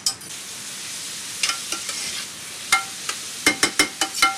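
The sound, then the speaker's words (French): Onions sautéing in a pan until they soften and turn slightly translucent: a steady high sizzle broken by sharp clicks and scrapes of a utensil stirring, several in quick succession toward the end. No one speaks. “Et on fait revenir ça à peu près combien de temps oh, Le temps que ça tombe un petit peu, que les oignons soient... Un peu translucides Un peu translucides, ouais.”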